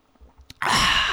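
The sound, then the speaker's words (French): A voice imitates gulping while drinking: a few soft, quick swallowing sounds, then a long, loud, breathy exhale. “des fois, quand je bois, quand j'ai envie de boire, je fais.”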